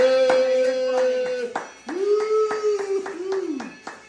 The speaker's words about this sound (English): Bravo! Bellissima, bellissima. Woo, golf clap.